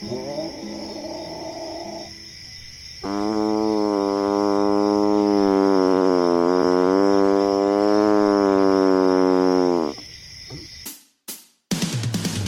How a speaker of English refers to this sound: He, he kind of stinks. Like 50 wet dogs. Wait, wait, wait. He's arching his back. I, I think he's about to howl.